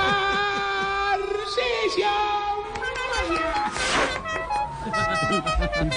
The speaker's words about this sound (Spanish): La bocina.